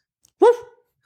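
A single short, fairly loud bark from a dog, standing alone against silence with a tonal, slightly drawn-out tail.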